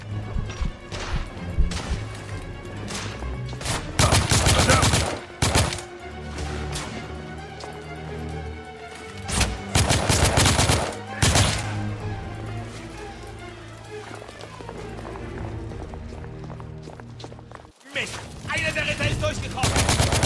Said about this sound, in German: Alleine stellte er sich den angreifenden Rebellen. Selbst diese Übermacht an Feinden hatte dem erfahrenen Ritter nichts entgegenzusetzen. Durch gezielte Schüsse schaltete er einen nach dem anderen aus.